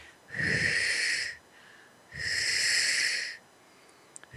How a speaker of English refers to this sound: So that's me breathing, moving the energy through your body, clearing you out.